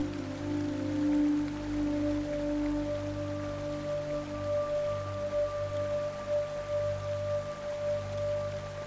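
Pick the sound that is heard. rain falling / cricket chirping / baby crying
rain falling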